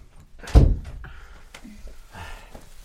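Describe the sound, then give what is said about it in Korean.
A room door swings shut with a single heavy thud, its low rumble fading quickly, followed by a few faint clicks and rustles. “지란과 진호가 방으로 들어오자 헤일이 문을 닫았다.”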